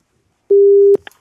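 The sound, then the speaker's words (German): A single loud, steady telephone call tone sounds for about half a second as a call is placed to a guest, then cuts off into a few faint clicks and rustles as the line connects. No one speaks. “Ich freue mich sehr, dass wir ihn jetzt anrufen.”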